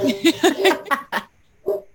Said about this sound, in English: My dogs are dog yelling at your dogs right now.